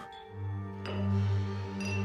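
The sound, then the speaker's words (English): A few sharp clinks of glassware, about three spaced-out taps, ring over a steady low hum, each strike bright and brief against the droning background. “I woke up at night to noises the clink of glassware, the bump of doors closing, and sometimes the sound of whispered voices.”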